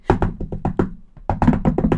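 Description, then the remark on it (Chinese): Urgent, rapid knocking on a door: a quick run of about six sharp raps, a brief pause, then another fast, loud flurry of knocks, with no voices. “对哦，好了好了，可以了可以了，好紧张的敲门声哦”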